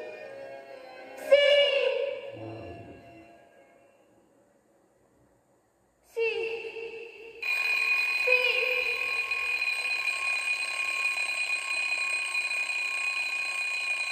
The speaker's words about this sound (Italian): Ma se tu ti svegli la sveglia o la sveglia che sveglia te?